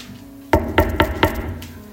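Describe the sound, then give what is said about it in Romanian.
Four sharp knocks on a door in a steady, evenly spaced rhythm, fairly loud, followed by a faint fifth tap; a low hum sits in the background and nobody speaks. “Când Isus a spus, iată, eu stau la ușă și bat, Apocalipsa 3, cu două zeci, da?”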